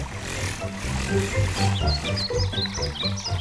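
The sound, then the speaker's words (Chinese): A dense chorus of low, throaty frog croaks by a small stream formed from rainwater pulses steadily and loudly, layered with thin, high chirping calls flickering above throughout. “雨水汇成的小溪，是蜻蜓、萤火虫和青蛙出生的小溪。”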